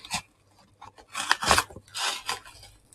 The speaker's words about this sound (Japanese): はい、えー、今、ハサミを入れました。